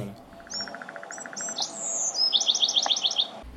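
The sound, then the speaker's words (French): Bright bird chirps and whistles in a TV series' opening theme sound over a steady musical background, with a quick rhythmic run of repeated high tweets near the end. No one speaks. “L'oiseau.”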